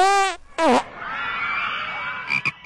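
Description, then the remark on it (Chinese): The little cartoon dinosaur Pipi farts when excited: two loud, squeaky, honking blasts, the second sliding down in pitch, then a thin whistling tone and a couple of quick sputters at the end. “小朋友们，可爱的小恐龙皮皮，只要一激动，就喜欢放屁。”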